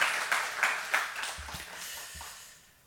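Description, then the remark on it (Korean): An audience applauding together during a thanksgiving Sunday church service, offering applause of thanks and glory to God: a dense wash of many hands clapping with a few sharper claps standing out, gradually tapering off toward the end. No one speaks over it. “우리 그 하나님 앞에 감사 영광의 박수 한번 하나님 앞에 올려드리겠습니다.”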